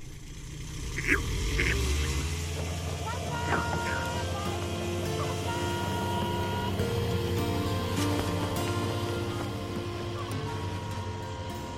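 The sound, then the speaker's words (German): A steady ultralight aircraft engine drone, heard from the passenger seat as it crosses a sparsely populated landscape, holds throughout, with strong low harmonic bands and a constant buzzing hum, plus faint wind noise and occasional brief higher chirps. “Ein Film, gedreht vom Passagiersitz eines Ultraleichtflugzeuges aus, das gerade eine wenig besiedelte Landschaft überquert.”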